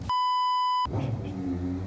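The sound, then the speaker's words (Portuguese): A single steady electronic alarm beep, loud, holding one bright tone for almost a second before cutting off, followed by a low, muffled background rumble. “Que ele vai apitando e vai te avisando quais são as atividades que você precisa realizar naquele momento”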